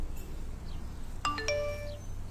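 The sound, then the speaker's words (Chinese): A short mobile phone message notification chime rings out: a quick run of bright, bell-like tones stepping down in pitch and ringing briefly, heard alone over a low steady hum. “这时，易星的手机响了起来，是李明耀发来的消息”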